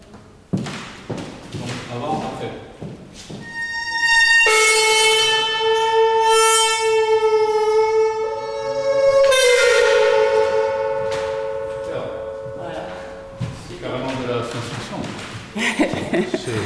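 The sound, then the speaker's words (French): A loud, sustained metallic gong-like tone with a harsh buzzing rattle rings for several seconds from a tam (gong) loudspeaker designed by Martenot, buzzing as the screw fixing it to the motor is loosened; the pitch shifts once midway, framed by scattered knocks and handling clicks. “Donc quand je la dévisse, ça fait aussi zinguer le système qui maintient normalement le tam.”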